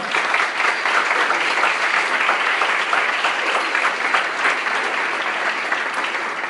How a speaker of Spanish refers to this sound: A la que le pido un fuerte aplauso.